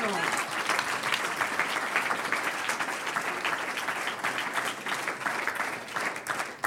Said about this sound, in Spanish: ¿Cuántos dicen gloria a Dios? Un aplauso al Señor.